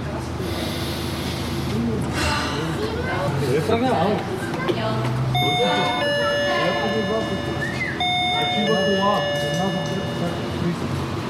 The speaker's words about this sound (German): Und dann gehen wir wieder zur Tür. Ja. Nochmal klingeln.